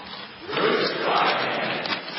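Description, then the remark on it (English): A crowd shouts back at Pilate together in a loud, dense roar of many voices that swells after a brief start and stays sustained throughout, with no clear words standing out. “They shouted back.”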